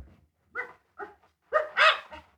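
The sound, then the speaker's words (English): A three-quarter Irish setter lets out a quick series of about five short, excited barks and yips while digging in Manchester Village, Vermont, fairly loud, with brief gaps between them and no talking. “Whatever disturbs him isn't buried very deep. Listen to him digging. Smart dog.”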